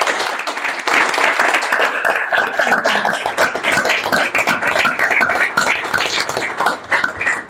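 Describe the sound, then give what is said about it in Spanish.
An audience applauds steadily for the panelists of a round table at a festival, with many overlapping claps forming a dense, sustained patter that holds at an even loudness throughout and carries no speech. “O sea que simplemente, aparte de pediros un aplauso para los aquí presentes, los ponentes, eh, para la tienda y la iniciativa por parte de Siete héroes, por favor.”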